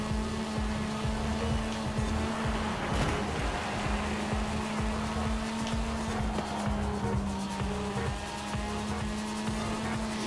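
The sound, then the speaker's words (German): A steady, droning car engine in a racing video game hums continuously at high revs, with a constant tonal whine, occasional tire noise and a dense wash of road sound throughout, no voices. “ich fahre einfach nur meinen Weg und die Motorradfahrer sind halt die Motorradfahrer irgendwie.”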